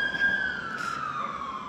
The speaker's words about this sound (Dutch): Er komt hier even een sirene voorbij.